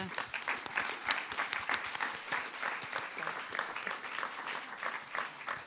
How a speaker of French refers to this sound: Waouh, amen. Puisqu'on peut l'applaudir.